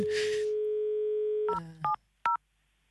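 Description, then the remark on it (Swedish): A telephone dial tone hums steadily, then three separate dual-tone keypad beeps sound as a phone number is dialed to place a call, each short and clear, with brief pauses between them. No one speaks. “låter aldrig så smart som när man slår telefonen.”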